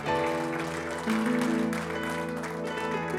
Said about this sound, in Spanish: Dale ese aplauso fuerte a Cristo porque Él es bueno